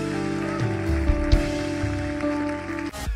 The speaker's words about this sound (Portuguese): E eu vou pedir que possamos dar uma enorme salva de palmas a todos os que tomaram esta decisão.